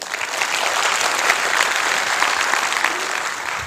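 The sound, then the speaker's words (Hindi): Steady applause from an audience, a dense patter of many hands clapping at an even, sustained loudness for several seconds, with no voices standing out. “तालियां होनी चाहिए”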